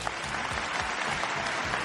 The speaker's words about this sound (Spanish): Ya estamos en nuestro podcast número 15, así que eso se merecen unos grandes aplausos.